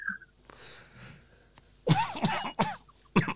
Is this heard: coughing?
yes